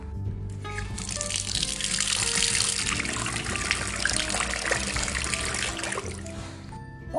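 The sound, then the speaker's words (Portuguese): Steady rushing, splashing water of a waterfall pours continuously for several seconds as someone bathes under it, fairly loud, with a soft musical tone lingering underneath before it cuts off. “Olha só, olha só, na cachoeira eu tomei banho.”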